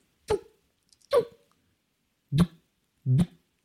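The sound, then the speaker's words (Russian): A voice imitates a silenced pistol shot four times, making short, breathy puffs in two loose pairs with brief pauses between them, with no other talk. “Вот такой звук от пистолета. То есть вместо бабах вот такой. Вот это реально глушитель.”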